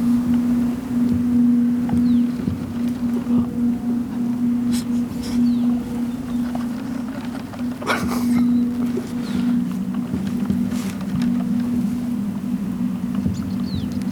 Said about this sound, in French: bruit des voitures.